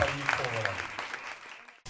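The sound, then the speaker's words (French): Audience applause for someone receiving a diploma and a bag of gifts, a dense steady patter of many hands clapping at moderate loudness, with a voice briefly audible underneath at the start, tapering off near the end. “On peut l'applaudir.”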